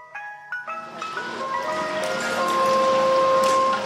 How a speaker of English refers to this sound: It's a very nice song, …, but I, I don't think this is the ice cream song. I don't think this is what they're looking for.